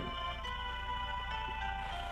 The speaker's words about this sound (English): Ooh, some sort of truck noise, maybe. Uh, oh, yep, there it is. Big old, big old dumpy truck, little, little garbagey dumpy truck doing a big old dumpy garbage.